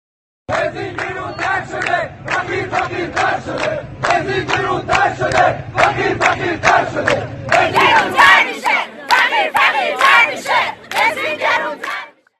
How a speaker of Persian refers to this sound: شعاری که شنیدین رو مردمی که آبای 98 به خیابون اومدن سر دادن